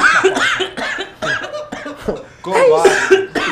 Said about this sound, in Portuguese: Até tossi.